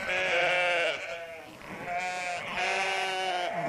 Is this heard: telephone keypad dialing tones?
no